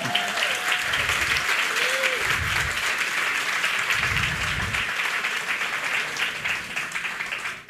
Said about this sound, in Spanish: Vamos, dele un fuerte aplauso al Señor. Dele.